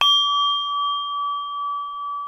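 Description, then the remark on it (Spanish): A single struck bell of a second bell apparatus rings out with a bright metallic attack, then a clear sustained tone that hums on steadily for a couple of seconds with a gentle wavering pulse. “La vida de una persona con este segundo aparato resuena más tiempo que el que usé con el primer aparato de campanas.”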